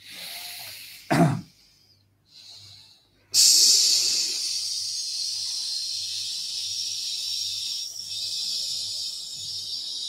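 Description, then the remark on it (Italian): After a quick, sharp intake of breath, a single long exhalation is pushed out in one breath as a steady hissing 'sss' in a sibilant S breathing exercise, holding evenly for several seconds, fairly loud, with no talking. “Attenzione a non barare inconsciamente perché sarete tentati a riprendere aria col naso, invece deve essere fatto con un unico respiro.”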